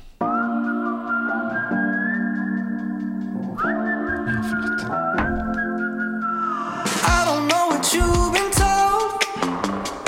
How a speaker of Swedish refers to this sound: Det är samma vibe, det är det där. Det är inte samma melodier, det inte samma ackord. Det är ju visslingen, det är ju det.